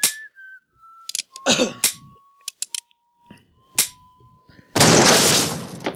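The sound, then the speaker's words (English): In a film scene set in a bar, someone whistles a few steady, sustained notes, broken up by sharp, loud bangs like gunshots, and the sequence ends in a long, harsh burst of noise. “I'll give it to that dude that he was gonna blow his fucking brains out in that bar just for whistling.”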